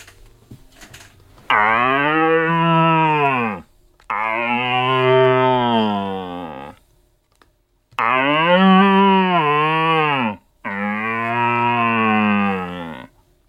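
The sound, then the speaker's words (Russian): Four long, drawn-out moaning calls imitating a calm young deer, loud, each lasting a couple of seconds with brief pauses between, sounding much like a cow's moo. “Ну, это молодой такой спокойный олень.”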